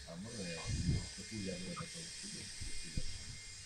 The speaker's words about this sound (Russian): Болгарка что-то пилят.